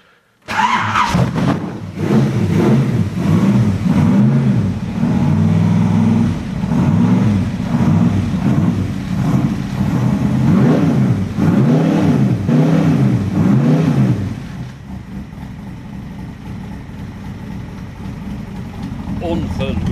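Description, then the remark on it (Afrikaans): The Ford engine of a Cobra car cranks and roars to life, then revs loudly in repeated rising and falling surges for around fourteen seconds before dropping to a quieter, steady rumbling idle. “Ford versus Ferrari, Ford se engines wat in hierdie Cobra is”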